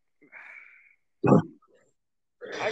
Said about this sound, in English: I wish I could mute this, but I can't. I clear my throat. Fucking allergies.